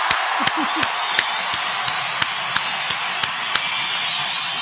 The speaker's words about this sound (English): We appreciate y'all for coming through. With a round of applause for everybody who came through.